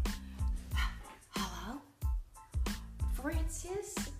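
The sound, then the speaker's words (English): A dog barks repeatedly, a quick series of sharp barks and higher yips with a whiny, pitch-bending edge, coming in uneven bursts about every half second. “say hello”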